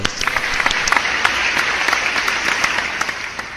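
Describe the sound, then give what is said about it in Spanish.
A burst of audience applause, many hands clapping in a dense, steady patter that holds at an even loudness for several seconds without any voices on top. “Vamos, aplausos.”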